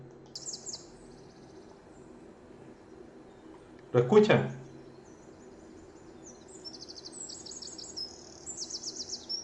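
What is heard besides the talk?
wren singing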